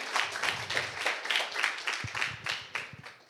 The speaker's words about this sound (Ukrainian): Оплески, оплески.